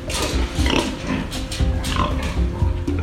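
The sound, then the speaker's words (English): Several pigs grunt and oink in a steady, overlapping chorus at a smallish pig farm of about 150 pigs in coastal Fujian province, China, with snorts and squeals rising over a dense, noisy barn background for the whole stretch. “So I went to a pig farm on the coastal province of Fujian, and I went to see one of a really typical kind of smallish pig farm.”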